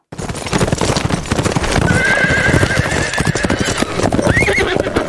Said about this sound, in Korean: 아 마지막 왜 이거 좋다 이거 이제 이건 달리는 말소리예요.